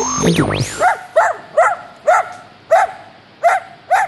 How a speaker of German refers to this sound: Hund im Radio?